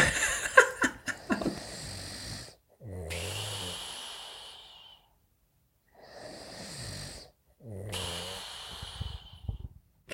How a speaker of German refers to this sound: Äh, das Einzige, was wir hier noch verraten können, ist, dieser Gast schnarcht ganz furchtbar. auch davon habe ich natürlich eine Aufnahme. Die würde ich jetzt einfach auch mal kurz einspielen.